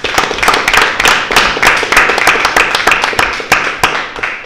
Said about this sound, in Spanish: pido un aplauso para los héroes de Malvinas.